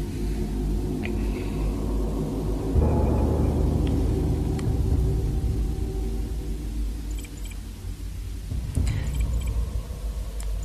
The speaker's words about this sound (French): J'entends comme un, petit. Euh, une aération. ça euh, fait. ça, c'est dans la pièce en temps normal On n'entend rien du tout, nous, ici.